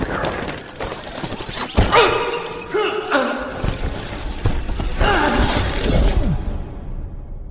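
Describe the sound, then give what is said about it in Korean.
Ice cracks and shatters with a loud crunching burst, followed by a cascade of broken ice fragments clattering and tumbling away, falling far off, a second wave of breaking debris rattling before it fades out. “바사삭거리는 소리와 함께 부서진 얼음 조각들이 아득히 먼 곳으로 떨어졌다.”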